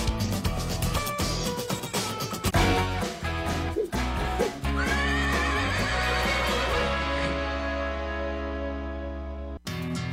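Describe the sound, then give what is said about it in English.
A horse lets out a loud, drawn-out whinny that quivers and slides up and down in pitch, layered over a dense, steady background, then cuts off abruptly. “You never heard of a talking horse?”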